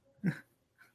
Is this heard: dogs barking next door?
yes